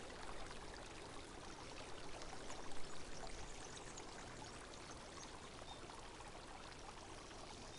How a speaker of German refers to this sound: In einem der Gärten stößt du auf einen glitzernden Springbrunnen, dessen Wasser in funkelnden Kaskaden über polierte Steine plätschert.